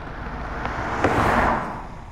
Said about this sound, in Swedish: Regndroppar trummade på biltaket. Vindrutetorkarna gjorde det där gnisslande ljudet.